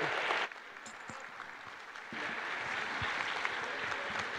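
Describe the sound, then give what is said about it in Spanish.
Steady audience applause sending off the speaker Alex Nava, a dense crackle of many hands clapping that swells a bit louder partway through and keeps going without pause, with no voices standing out. “Con un fuerte aplauso lo despedimos, Alex.”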